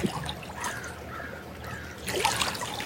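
Water trickles and splashes steadily, a busy, bubbling flow that swells louder near the end, with no voices present.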